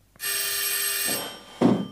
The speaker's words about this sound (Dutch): Daar gaat de bel.